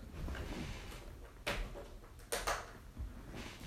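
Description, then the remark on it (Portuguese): An electric fan being switched on because it is very hot: a few sharp clicks and knocks over a steady low background rumble, with no one talking. “Vou ligar o ventilador que tá um puta calor.”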